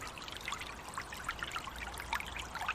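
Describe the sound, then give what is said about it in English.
River water from the Dodder pours steadily over a weir built in 1244, a continuous rushing wash dotted with small bubbling gurgles and splashes. It sounds fairly soft, with no voices. “Since 1244, when the Weir was built, a three kilometre stretch of water left the Dodder to join the Tymon River.”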